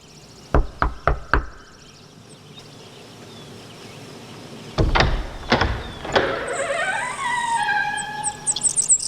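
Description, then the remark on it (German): Four quick, evenly spaced, sharp knocks on the door of a dilapidated manor house, then a pause before a heavier clatter and a rising, whirring whine with faint high chirps. “klopfte an der Tür und der Regisseur öffnete.”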